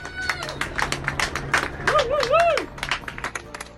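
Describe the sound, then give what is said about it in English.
Scattered clapping from many people across the UK at windows, on front porches and balconies at 8 pm on a Thursday, applauding NHS doctors, nurses and emergency workers during the coronavirus pandemic; irregular and overlapping, with a wavering, rising-and-falling whistle partway through and faint cheering voices mixed in. “You're in our millions at 8 pm for two Thursdays in a row, the UK has thrown open its windows, stood on its front porches, leaned over its balconies, and clapped.”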